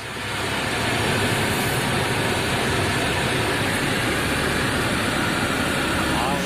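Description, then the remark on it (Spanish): Heavy rain from a summer thunderstorm pours down in a dense, steady roar that fills the whole recording, with no breaks or distinct drops, flooding an industrial estate. “grabó eh, cómo estaba la lluvia y cómo en el polígono se había inundado todo”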